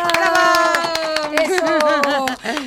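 Welcoming applause for a guest who hosts a program on the Congress channel of Mexico City: a run of sharp, rhythmic claps, fairly loud and steady for a few seconds, ringing over a sustained, wavering voice-like tone underneath.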